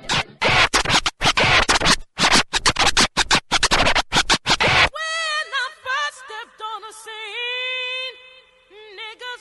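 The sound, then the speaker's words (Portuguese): Loud, rapid record scratching on a turntable (vitrola) as music is about to be played, in quick rhythmic bursts for about five seconds, then giving way to warbling, sliding pitched tones. “Vou tocar música, gigante. Vamos lá? Movimento da vitrola, vai.”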